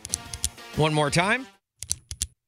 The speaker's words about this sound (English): Is it the clicking of a pen?